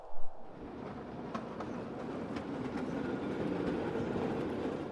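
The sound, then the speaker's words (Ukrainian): A tram pulls away after its doors close and rolls along the rails with a steady low rumble, faint rhythmic clicks of wheels on track joints over it, the noise building slightly as it gathers speed. “Шановні пасажири, двері зачиняються.”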